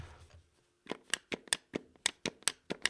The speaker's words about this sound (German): So, und jetzt der patentierte Spieleveteran-Express-Geräuschtest. Ihr hört zunächst die traurigen Feuerknöpfe des The C64 Mini-Joysticks.